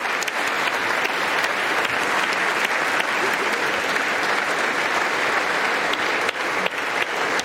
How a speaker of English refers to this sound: They ended, uh, of course, more applause, applause, applause.